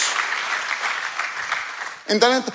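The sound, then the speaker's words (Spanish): An audience claps steadily in a dense, even wash of applause for about two seconds, then a man's voice starts speaking as the clapping fades. “Aplauda con confianza.”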